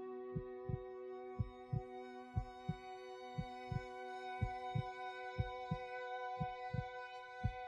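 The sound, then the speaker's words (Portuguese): A soft, steady heartbeat thumps in a regular lub-dub rhythm, about a dozen beats, over a low sustained humming drone; quiet, with no voices. “Tudo continua escuro, mas o silêncio é rompido por um leve e ritmado som, uma batida.”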